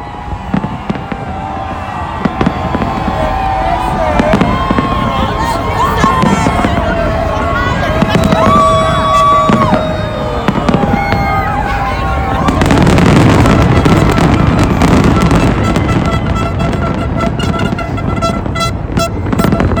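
New Year fireworks crackle and boom continuously over Planet Hollywood and Aria above a loud, cheering crowd, with whistling and horn-like tones weaving through the noise; the bursts swell denser and louder in the second half.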